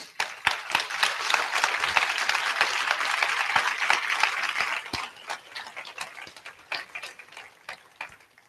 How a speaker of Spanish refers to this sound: ¿Quiénes son los que vienen por primera ocasión? Primera ocasión. Miren, hay que darles un aplauso fuerte de bienvenida a ellos.